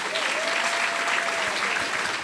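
A church audience claps steadily and densely for a couple of seconds, applauding the communications team, a continuous wash of applause with no talking over it.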